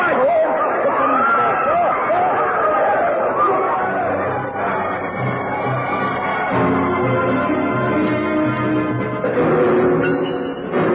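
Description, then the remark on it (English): A dense panicked crowd of voices clamors all at once in utter confusion, loud, a continuous overlapping babble of agitated shouting with no single speaker standing out. “All was utter confusion. No one knew what was happening. There was a pistol shot and screams. The crowd panicked.”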